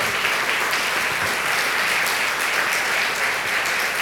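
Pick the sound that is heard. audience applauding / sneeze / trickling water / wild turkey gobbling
audience applauding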